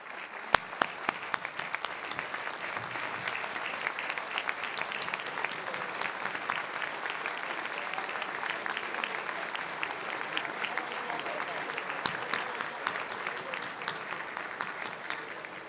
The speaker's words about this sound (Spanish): Hoy a ellos quiero reconocer su trabajo y por favor, si se pueden parar, y un aplauso para todos ellos.